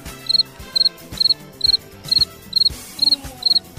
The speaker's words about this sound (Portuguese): Pausa dramática agora. Vai deixar esse buraco no programa. Tem certeza. Pausa Bom, dramática. grilinho entrando aqui. Cri, cri, cri, cri.